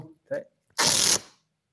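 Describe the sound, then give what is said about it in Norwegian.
A piece of tape is pulled in one quick, loud, crackling rip lasting about half a second, just after a couple of brief vocal sounds. “Det var ikke meg, altså. Det var jo teipbiten.”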